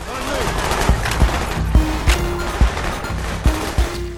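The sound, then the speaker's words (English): Repeated bursts of synthetic gunfire from the video game Call of Duty Black Ops, in its recreation of Kowloon, sharp shots popping every half second or so over a dense, busy backdrop of game sound and music. “It lives on in a kind of virtual memorial, except with um, way more gunfire.”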